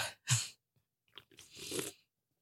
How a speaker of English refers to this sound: Sips um, two X's beer with lime and salt.